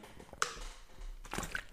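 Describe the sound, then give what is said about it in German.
A quiet sip of water: a small wet click, then a soft burst of slurping and swallowing noises, with no one talking. “Ich nehme hier kurz einen Schluck Wasser.”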